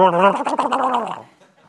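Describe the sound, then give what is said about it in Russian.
A person imitates a turkey's gobble with a loud, rapid warbling, throaty trill lasting about a second, then trails off into quiet. “А индюк или индюшка?”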